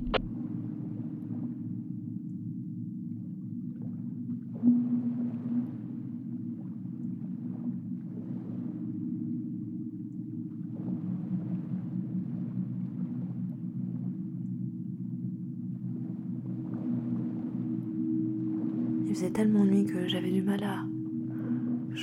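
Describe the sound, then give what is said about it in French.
Hoarse, barking calls of sea lions rise faintly over a steady low boat-engine drone at night, heard from a boat moving away from Amsterdam Island, with one louder, raspier call near the end. “J'entendais les otaries qui me faisaient rire.”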